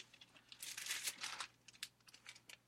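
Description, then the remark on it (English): Thin Bible pages rustle and crinkle as they're flipped to find Leviticus 19:18, a soft dense flurry of papery swishes followed by a few lighter, scattered crackles. Quiet overall, with no voices. “Genesis, Exodus, Leviticus 19:18, it says turning here.”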